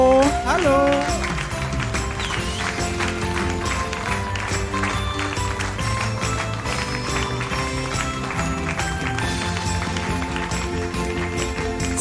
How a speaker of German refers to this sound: bei Wette das oder was, dass sie so halb Stunde lang klatsche?